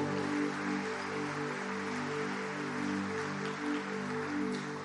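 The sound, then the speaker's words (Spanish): A large crowd claps steadily and densely for about five seconds, a continuous wash of applause at even loudness, with a low sustained musical drone beneath it; the applause is offered to the Lord during a worship service. “Le damos un aplauso bien fuerte al Señor.”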